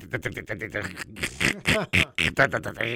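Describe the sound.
A voice imitates a boat's dead battery failing to engage the starter when the key is turned, with a quick run of rapid clicking pulses followed by strained, sputtering vocal groans, fairly loud.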